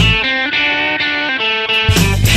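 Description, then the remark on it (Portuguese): A loud, buzzy electronic alarm effect, used as a Black Friday offer alarm, blares in a rapid series of short, stepped tones, ending in a harsher distorted burst. No one speaks. “Ó, tocou o alarme da, de oferta da Black Friday.”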